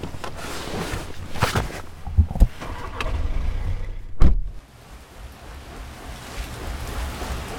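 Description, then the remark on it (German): Steady splashing and rushing water from a turning water wheel 7.87 metres in diameter in the Swabian-Franconian Forest, after days of much rain, with a few sharp knocks and thumps breaking through midway before the flow settles back into a continuous wash. “Hier hört man das Plätschern vom Wasserrad.”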